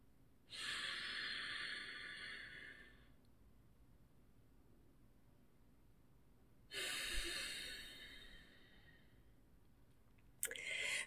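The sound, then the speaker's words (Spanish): Deep, forceful breaths drawn through the nose in a Nauli breathing exercise, two long airy rushes of about two and a half seconds each separated by quiet, with a third starting at the end; fairly loud, no talking. “Aquí como dato curioso, lo que estoy haciendo yo se llama respiración Nauli, que es respiración por la nariz, pero es un poco más profundo que eso, o sea, no es la simple respiración como esto, sino que es permitir que el aire entre por tus”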